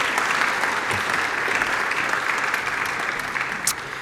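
Steady applause from an audience, a dense wash of many hands clapping at a constant level for about four seconds, with no voices standing out.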